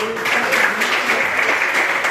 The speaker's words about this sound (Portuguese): As palmas que adorem ao Senhor Jesus.